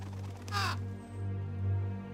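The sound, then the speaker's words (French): A bird lets out a single short, harsh caw as two birds fly off to perch on a boat, then falls quiet over a steady low background hum. No one speaks. “Vexés, les deux oiseaux s'envolèrent pour se percher sur le bateau.”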